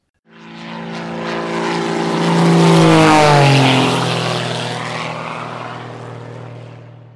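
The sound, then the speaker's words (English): A propeller plane drones loudly as it flies toward the city of St. John's in Newfoundland, its engine tone swelling, then dropping in pitch as it passes overhead and recedes slightly. No one speaks. “As the escaping plane approaches the city of St. John's in Newfoundland, Krill sneaks into the cargo bay and leaps from the plane with a parachute.”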